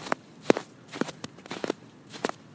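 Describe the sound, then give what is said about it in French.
Footsteps crunching through snow at a steady walking pace as a person walks back to the newspaper office in the afternoon, about five or six distinct crunches with quiet gaps between them. No one speaks. “Là, ce que vous entendez, c'est mon nez bouché et la neige sous mes pas en rentrant cet après-midi au journal.”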